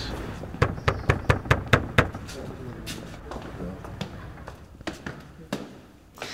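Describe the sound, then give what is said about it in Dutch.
A quick run of about seven firm, evenly spaced knocks on a church door rings out, followed by a few scattered softer thuds and faint background murmur. “Hoe graaf zou dat zijn als we kloppen dat die open doen?”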